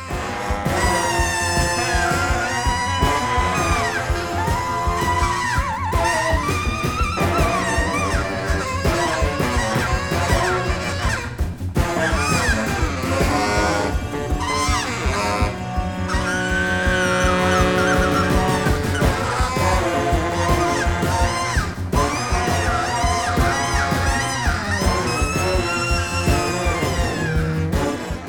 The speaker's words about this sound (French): un morceau d'à peine une minute avec un solo de saxophone en mode free jazz